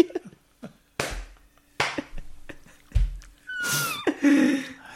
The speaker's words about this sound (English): Are you eating an apple? Yeah, they're so good in the mic? yeah. Worst thing to eat on mic.